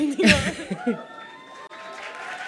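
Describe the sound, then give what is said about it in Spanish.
A live audience claps and cheers in a steady, diffuse wash of noise, with a few voices and laughter rising briefly near the start before the clapping continues evenly. “porque aplaudieron más, me parece”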